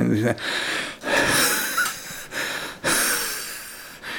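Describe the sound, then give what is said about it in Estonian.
A voice imitates the heavy, labored breathing of an overweight person: a series of loud, raspy breaths with short pauses between each wheezy inhale and exhale, no words spoken. “ja ülekaalus inimesed tihti on see, et tal on nagu hing, hingamisega raskusi. ja siis tegelikult, tegelikult ta tuli, tema toas oli niimoodi, et teda oli kuulda, kui tuli”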